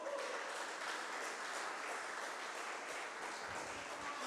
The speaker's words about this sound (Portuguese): Uma novidade, aplauda Jesus bem alto.